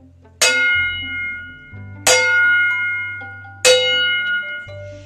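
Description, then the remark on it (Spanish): Distant village bells ring out in three slow, evenly spaced strokes, each bright clang fading into a long shimmering tail, with a low steady drone humming underneath and no voices. “A lo lejos, oía las campanas de un pueblo.”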